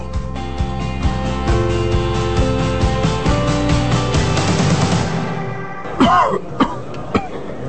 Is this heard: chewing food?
no